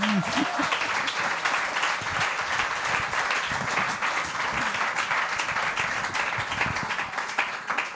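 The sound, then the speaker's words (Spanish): A crowd applauds steadily for several seconds after a call for applause, a dense, even wash of many hands clapping with no breaks, slightly thinning toward the end. “Un aplauso, por favor”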